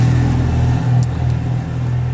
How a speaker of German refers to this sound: Eine Ente, also das Auto.